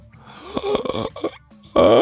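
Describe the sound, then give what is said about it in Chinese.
A drawn-out, voiced yawn performed by a person, with a groaning, sliding pitch, a short pause, then a louder, strained burst of vocal sound at the end. “哎，甘球张嘴打了个大大的哈欠，然后伸了个大大的懒腰。”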